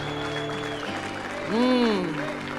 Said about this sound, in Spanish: Si usted lo cree, por lo menos debería ponerse de pie, darle un aplauso al Señor y le decimos, te damos la bienvenida.